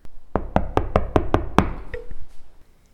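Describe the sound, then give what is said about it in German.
Six quick, evenly spaced, loud knocks on a door, rapping out a steady rhythm before all falls quiet; no one speaks. “Wir klopfen mal und schauen, ob sie da ist”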